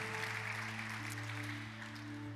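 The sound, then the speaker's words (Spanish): A crowd at a church service claps steadily and densely in applause for Jesus Christ for the whole stretch, a loud, even wash of applause with no talking, while sustained low tones hum underneath. “Dele un fuerte aplauso a Jesucristo.”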